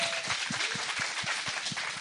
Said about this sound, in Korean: 야, 박수 많이 들어가시죠.